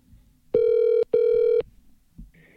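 A telephone rings twice on the line as a call is made to TC Paintball, two loud steady electronic tones of about half a second each separated by a brief gap, followed by a faint click as voicemail picks up and a quiet hiss.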